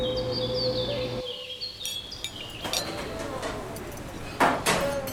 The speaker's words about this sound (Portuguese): O que se escuta ao fundo é o ruído da cozinha se preparando para o agitado dia que vem pela frente no Rinconcito.